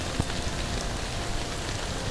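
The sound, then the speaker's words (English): Steady rain patters densely on a tarp garage overhead during a thunderstorm in 2016, a constant hiss of drops with one sharper tap near the start and no voices. “I actually harvested this rain noise by myself”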